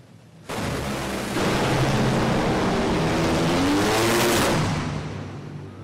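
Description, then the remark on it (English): Roaring drag race car engines at the Spring Nationals in October 2020, heard in a TV broadcast mix combining several microphones, blast at full throttle, a dense, loud wall of motor noise with rising harmonic whine, swelling near the end before easing off; no one speaks. Tony Schumacher wins by two thousandths of a second. “Okay, so I hope you guys heard what it sounds like when they put several mic microphones together and that information together.”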